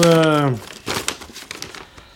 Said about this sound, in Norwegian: åpner et papir Papiret er brettet på midten og på siden.